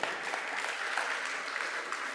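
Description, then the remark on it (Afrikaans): A crowd applauding with dense, steady hand clapping that fills the whole stretch, a bright crackling wash of many overlapping claps at an even loudness, with no voices on top. “So dankie julle kan dit gee vir hulle ook 'n lekker hande klap toe.”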